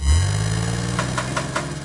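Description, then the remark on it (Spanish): A car engine catches with a low rumbling surge, then settles into a steady idle with a smooth hum and faint rhythmic ticking. No voices. “prender un carro es algo más que prender un carro.”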